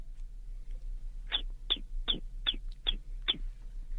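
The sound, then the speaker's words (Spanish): A voice imitates a baby chick's peeping: six short, high, downward-sliding peeps in a quick, even rhythm, clear over a low background hum. “¿cómo hace Pollito?”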